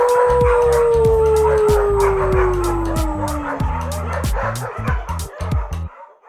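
A dog lets out a long, steadily falling howl while sharp barks punctuate it, followed by a burst of quick barks and yips that trail off at the end.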